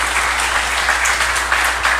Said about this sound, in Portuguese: podemos aplaudir a uma mulher guerreira que fez a diferença no nosso município.